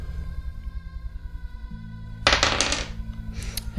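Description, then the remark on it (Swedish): A die is rolled for a game check and clatters and tumbles across a hard surface in a short rattling burst, then a brief second skitter as it settles on a five, over a steady low background hum. “Så fyra plus fem plus tärning?”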